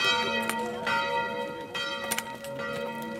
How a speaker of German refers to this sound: Das Angelus läuten früh um sieben.